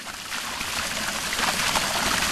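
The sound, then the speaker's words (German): Water rushes out of a pipe being flushed to clean the line, in a loud, continuous stream, a broad hissing gush that holds at constant strength throughout, with no one speaking. “Durch die Spülung wird die Leitung gereinigt.”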